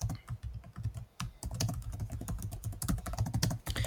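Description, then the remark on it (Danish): Rapid, uneven clatter of keys on a computer keyboard, fairly loud, with a brief pause before the typing resumes in a steady burst of clicks. “Jeg skriver her, se Star Trek Enterprise, hvis du har set andet Star Trek før.”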